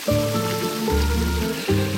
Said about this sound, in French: est-ce que vous pouvez peut-être vous approcher sans prendre de risque hein au, maximum de la cascade pour qu'on entende cette cascade de l'éventail. Voilà. Ah oui, tout de suite il fait plus frais.